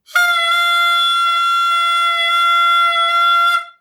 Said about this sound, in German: Oh, man kann es hören. Eine Tröte.